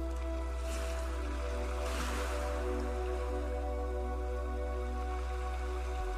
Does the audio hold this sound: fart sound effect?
no